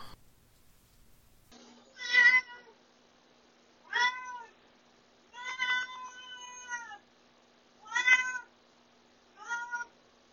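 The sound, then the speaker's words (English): A cat named Duarte meows five times in a row, drawn-out, tonal calls spaced a second or two apart, clear against a quiet background with no talking. “um, and of course, we have one last very special guest, um, and that is my cat Duarte is going to tell us about his favorite childhood book.”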